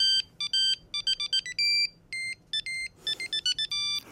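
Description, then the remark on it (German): A mobile phone ringtone plays a bright, beeping electronic rendition of a classical melody, quick note groups in a steady rhythm, clear and close with no talking. “Ja, zum Schluss zu einem Klingelton, den manche auf dem Handy haben.”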